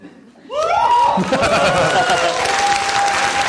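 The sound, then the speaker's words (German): Audience applause for the alphabet being recited bursts in after a brief quiet moment and holds steady as dense, continuous clapping, with whoops and laughter mixed in and a sustained whistle near the end. “Wenn man dafür schon Applaus kriegt, das natürlich.”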